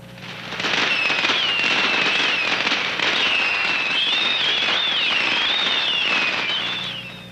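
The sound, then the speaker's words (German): Fireworks and firecrackers go off at the Yenshue festival, with people standing close to them, in a dense, nonstop barrage of sharp crackling pops, with high wavering whistles rising and falling above the din throughout. No one speaks. “Dennoch kommt es immer wieder zu Verwundeten, was vor allem darauf zurückzuführen ist, dass sich manche Menschen zu nah an die Feuerwerke stellen um mehr Glück abzubekommen.”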